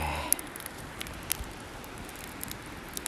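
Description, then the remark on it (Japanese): A quiet campfire at Akiu Onsen in Sendai City crackles with a few sharp, scattered pops over a soft, steady hiss of burning, with no voices. “ついにですね焚き火の音が聞こえるのかな聞こえればいいなと思って録音してるんですが、え私は今き火をしていますえー、っとですね仙台市の秋湯というですね秋湯温泉っていう”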